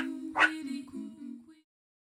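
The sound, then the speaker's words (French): Two girls' voices imitate meerkat barking in unison inside a car, a sharp yappy burst followed by a few drawn-out whining barks that trail off after about a second and a half. “se mirent à aboyer en chœur comme des suricates.”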